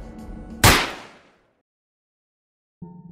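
pistol gunshot

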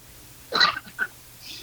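throat clearing

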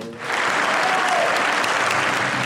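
standing ovation applause

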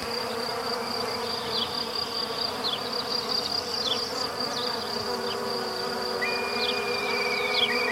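mosquitoes buzzing

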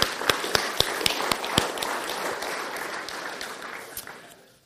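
audience applauding

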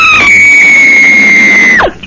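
woman screaming sound effect

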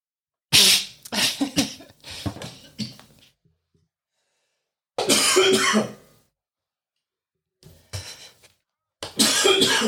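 coughing

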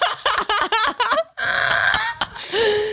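sneeze

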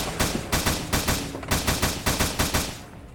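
gunshots fired

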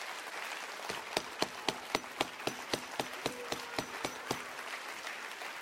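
audience clapping hands

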